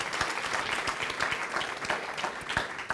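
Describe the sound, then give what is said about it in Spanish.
A crowd claps steadily in praise of the King of Kings, dense overlapping handclaps forming a continuous loud wash of applause with scattered sharper claps standing out throughout. “Dele ese fuerte aplauso al Rey de Reyes. Déselo fuerte.”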